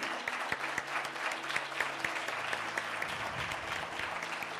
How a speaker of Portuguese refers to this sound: Vamos dar uma salva de palmas para Jesus porque ele é digno.